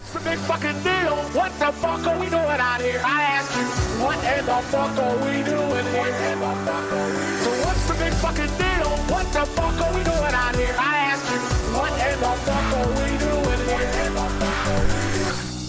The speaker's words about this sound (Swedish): nu kommer en outro-låt så för er som vill ha riktigt, riktigt bra ordvitsar om elektricitet, elektriker och så vidare, häng med.